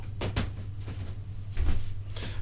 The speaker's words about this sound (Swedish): Jag ber om ursäkt för att mitt studiogolv knarrar. Det är typ det sämsta man kan ha. Ett knarrande studiogolv.